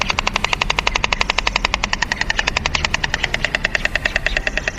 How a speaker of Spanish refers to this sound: Pero luego hay por todo, por todo el pueblo, por todo Alfaro hay, hay cigüeñas como estas que, que nos han venido aquí a visitar también. A ver si las podemos escuchar ahora.